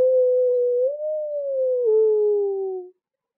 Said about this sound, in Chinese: 这是狼群的叫声。